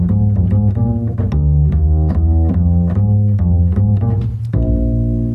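A double bass, its strings plucked with the fingers rather than played with a bow, plays a steady run of deep, resonant notes, each with a soft thumping attack, ending on a longer ringing note. Fairly loud, with no voices.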